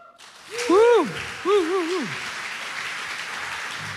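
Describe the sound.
Steady audience applause welcoming a man onto a stage to share a testimony, a dense crackling patter that carries on throughout, with a couple of sliding voiced cheers or calls rising over it in the first two seconds.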